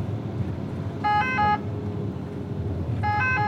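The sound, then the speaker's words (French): Short bursts of a two-tone ambulance siren alternate high and low pitches, sounding twice over a steady engine and road rumble, heard from inside the moving ambulance with its blue lights on. “Vas-y, tu peux couper ta sirène.”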